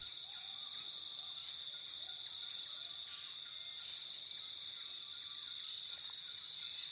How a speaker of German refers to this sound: Der Klang des Dschungels begleitet dich in den Schlaf.